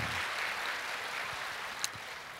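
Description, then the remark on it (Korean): Steady applause from a church audience at a dawn prayer service, given to encourage a missionary, a dense wash of many hands clapping at an even level throughout, with one sharper clap standing out near the end. No one speaks. “아마 현지에서도 이 새벽기도 함께 참여할 텐데 우리 큰 박수로 우리 성교사님 격려와 아, 사랑의 박수를 전해드립니다.”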